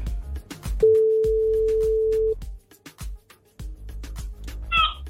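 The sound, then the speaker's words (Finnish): A single loud, steady ringback tone from an outgoing phone call, placed by a radio morning show to a listener, sounds for about a second and a half over a thumping music bed, then cuts off. “Nyt olisi taas aika näpytellä puhelimet tai numerot ruutuun ja pistää se on, vihreätä luuria. Se on siitä painettu, eikö havata linjaa.”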